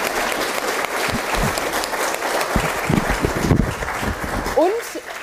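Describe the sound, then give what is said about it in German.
An audience applauds the panel at the end of an evening event in Hamburg in July, a dense wash of clapping holding even volume for several seconds, with faint voices and a brief rising vocal sound near the end. “Ein großer Applaus für unser Podium, bitte.”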